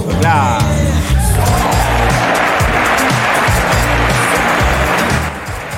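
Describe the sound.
Loud, steady applause for the production team of the show Desenchufados fills nearly six seconds, a dense wash of clapping over a low rumbling backdrop, with a brief voice at the start before it fades slightly at the end.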